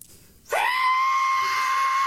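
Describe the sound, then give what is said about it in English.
A voice imitates a jet plane's piercing screech-whistle, as heard by a man shaving in his bathroom, a single sustained high-pitched tone that rises sharply at onset and holds steadily loud for over a second and a half. “In the bathroom taking a shave, and I heard a, a screeching that between a screech and a whistle.”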